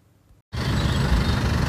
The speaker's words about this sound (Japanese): えー、朝の散歩に来てます。これはちゃんと音入るかなえー、車多いですね、今日これは日曜日の朝ですけれども、バイクも多いですね、うん、バイク多いですね。